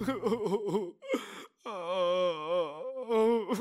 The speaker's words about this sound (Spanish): Siguió llorando.